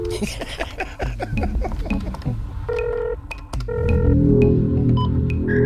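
Electronic telephone-line tones of a public-service fax machine connecting: a burst of clicks and short dial-style beeps, then sustained steady pitched tones over a rising hiss and warbling data noise.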